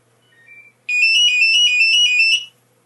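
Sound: telephone ringtone ringing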